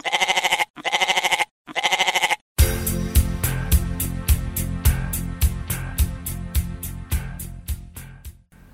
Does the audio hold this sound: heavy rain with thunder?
no